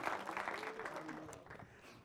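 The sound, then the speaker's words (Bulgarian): A church audience applauds in a dense, steady wash of clapping, with a few voices calling out over it, the applause easing slightly toward the end. “Може ли да ръкопляскаме още веднъж?”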